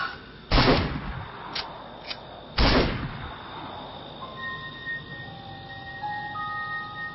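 Two loud rifle shots, fired into the air as a warning outdoors at night, crack out about two seconds apart, each trailing off in a short echoing tail, followed by quieter background with faint, steady high-pitched tones.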